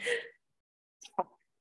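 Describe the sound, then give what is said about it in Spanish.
A sharp sneeze bursts out, followed after a brief pause by a short second huff or vocal noise, then quiet. “Salud.”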